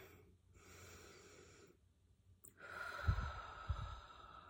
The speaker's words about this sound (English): So let's just take a deep breath together.